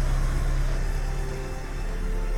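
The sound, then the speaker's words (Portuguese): A jeep's engine rumbles as it drives past, a loud, steady low-pitched drone filling the whole moment, with no voices over it. “Ui, peraí, que passando um carro aqui, um jeep. Bom, fazendo barulho aqui.”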